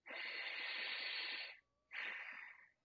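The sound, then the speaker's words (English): A long, hissy inhalation through the nose with the right nostril plugged by a finger, fairly loud, followed after a short pause by a second, briefer sniff. No talking. “Take your right finger and plug the right side of your nose, and take a breath in through your nose.”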